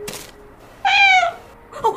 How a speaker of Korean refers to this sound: 문 앞에 웬 고양이가 있는데요?